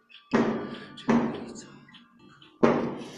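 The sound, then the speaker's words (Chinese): Fireworks go off in three sharp, booming bangs at uneven intervals, each one followed by a rumbling tail that fades slowly before the next blast. “感觉一时半会儿不会停， 甚至放起了烟花。”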